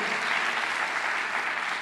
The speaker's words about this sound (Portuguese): E se você crê nisso, dê uma salva de palmas bem forte a Jesus.